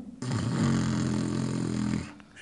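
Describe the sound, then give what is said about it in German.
A single deliberate inhale made with a rough, snoring-like rasp in the throat, part of a Brahmari (bee breath) breathing exercise, held steady for nearly two seconds, fairly loud, with no talking. “Dazu atme zunächst tief ein, noch einmal normal vollständig aus und dann atme ein mit dem hörbaren Schnarchklang.”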